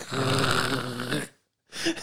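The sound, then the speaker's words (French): A person imitates a dog's growl, with a loud, rough, rumbling snarl of about a second, a brief silence, then a shorter growling burst. “et, en plus, le pire, c'est que tu choisis la race du chien que tu veux faire. Tu veux, genre un pitbull aujourd'hui.”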